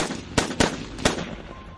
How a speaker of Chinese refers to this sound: 他突然将突击步枪探出窗外，对着狼群密集的地方就是一梭子。